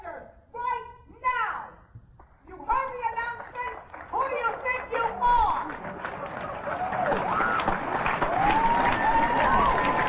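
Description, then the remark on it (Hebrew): Excited voices shout and call out, then the audience of a musical performance breaks into sustained applause that builds and keeps going steadily to the end, with raised voices still cutting through the clapping. “הקהל מוחא כפיים, כי באיזשהו שלב היא יצרה את הכל.”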